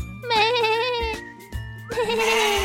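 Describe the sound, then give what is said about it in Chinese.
A pet lamb on a farm in Sweden bleats twice in long, quavering, high-pitched cries, the second rising sharply, over a steady low thumping beat with a faint tinkle. “他养了一只小绵羊，他非常的宝贝这只小绵羊哦。”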